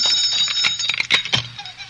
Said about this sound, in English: There was an hour yet before the ceremony, and suddenly there was a violent ring at the gate bell the name of all that's holy, stop jangling that bell. I'm coming.